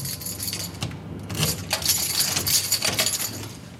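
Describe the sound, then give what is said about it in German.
A bunch of keys jangles and clinks repeatedly as someone tries to get into the laboratory area of a clinic, bright metallic rattles coming in bursts over a few seconds with no talking. “Zu viele Schlüssel.”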